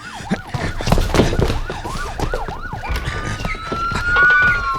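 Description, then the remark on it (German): Several police sirens wail at once, a quick rising-and-falling yelp repeating about twice a second before settling into long, high overlapping tones. Loud, over a rumble of traffic, with no talking. “Hörst du das? Das klingt nach mehreren Polizeiwagen.”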